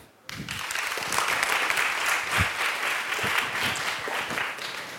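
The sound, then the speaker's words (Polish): An audience bursts into steady, sustained applause welcoming a guest to a meeting about a newly published debut book, a dense wash of many hands clapping at once that starts abruptly and holds loud for several seconds. “Chciałbym też, byśmy zaczęli nasze spotkanie od fragmentu książki i powitajmy bardzo serdecznie oklaskami.”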